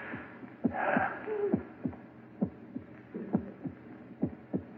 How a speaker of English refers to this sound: That noise. Hear it? Your heart beating, pounding, driving the blood through your veins. Beating more slowly now, slower and fainter, running down like a tired clock.